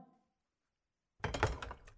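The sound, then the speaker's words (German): After a moment of silence, a door shuts with a single loud thud that rings out briefly and fades. “Tür zu.”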